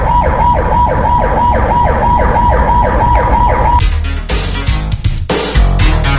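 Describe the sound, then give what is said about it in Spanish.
A loud ambulance siren cycles in a fast rising-and-falling yelp over steady traffic rumble as it heads up Independencia and nobody gives way, then cuts off after a few seconds, leaving engine noise and scattered clatter. “Oiga cómo suena esa ambulancia y nadie da paso por aquí subiendo por la independencia, oiga.”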